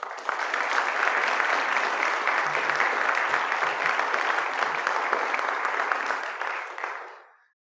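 Sustained applause from an audience, a dense steady clatter of many hands clapping at an even level for several seconds before fading out quickly at the end.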